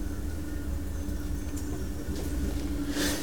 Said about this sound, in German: Ja, Zug fahren.